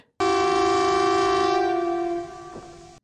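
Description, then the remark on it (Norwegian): A civil defence warning siren of Norway's public warning system sounds one loud, steady, unwavering tone for about three seconds, with no voices, then cuts off abruptly. “Den kommer fra varslingsanlegget til Sivilforsvaret og er én av tre sivile beskyttelsestiltak i Norge.”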